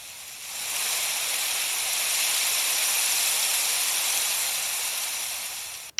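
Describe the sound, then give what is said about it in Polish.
A moderate snowfall ambience: a steady, airy hiss that swells in over the first second, holds evenly and fairly loud, then cuts off with a small click at the end. No voices. “Umiarkowany śnieg.”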